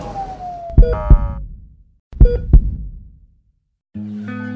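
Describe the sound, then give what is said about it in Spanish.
An ambulance siren on a priority 1A emergency run along the Avenida Quinta Norte corridor toward Clínica Dime sounds in short, loud bursts with sharp pauses between them, followed by a steady two-tone wail near the end, with no voices. “Por favor, prioridad 1A, ambulancia en emergencia.”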